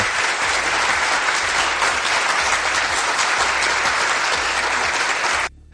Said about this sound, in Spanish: Bueno, el efecto de los aplausos, cómo lo utilizan, ¿eh? Buena Fuente y todos, cómo mienten, ¿no? Cómo mienten con esas risas enlatadas, esos aplausos.